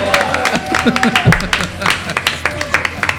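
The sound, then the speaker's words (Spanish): A crowd claps steadily for a few seconds, a dense patter of hand claps mixed with cheering voices and a brief tonal whoop or whistle. “Un aplauso para el público.”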